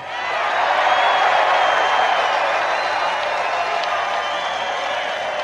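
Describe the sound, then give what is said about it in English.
A large rally crowd roars with sustained cheering and applause, a dense, steady wash of clapping and shouting that swells in quickly and holds loud throughout, with no talk over it. “That's a lot of people. This is a big crowd.”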